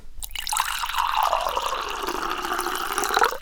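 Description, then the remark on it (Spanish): Water pours steadily into a glass, a bubbling stream whose pitch rises as the glass fills, lasting a few seconds before stopping abruptly. “Tomemos un poquito más de agua.”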